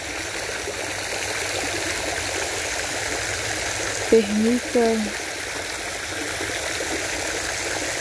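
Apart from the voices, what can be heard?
flowing stream water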